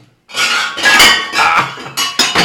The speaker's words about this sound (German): Okay, pass auf. Ich nehme die Flasche auch so raus, dass man das hört, dass ich wo eine Flasche rausnehme.